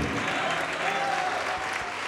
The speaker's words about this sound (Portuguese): E vamos aplaudir mais ao nome de Jesus por cada vida que está chegando aqui.